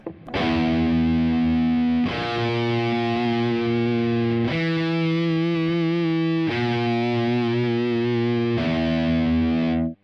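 A heavily distorted electric guitar plays the tritone interval, the so-called devil's interval, as a series of five long, ringing power-chord-like notes, shifting back and forth between two dark, buzzing positions with no talking.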